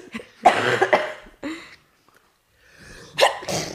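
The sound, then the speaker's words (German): An abrupt cough bursts out, followed by a short pause and then a sharp hiccup-like catch of breath, both loud and isolated with no talking. “diesen einen Huster und dieses eine ja. Schnackerl.”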